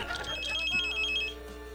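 An electronic telephone ring trills steadily for about a second, bright, then cuts off, leaving a faint hum and soft background noise.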